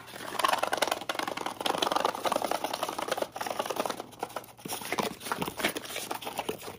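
Continuous papery rustling and scraping as cards are slid out of a cardboard box, with crisp crinkles and soft clicks throughout and no talking.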